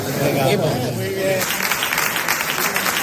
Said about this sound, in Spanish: Pues eran los aplausos que recibían antes de su partida para animarles en una labor que es fundamental ahora mismo.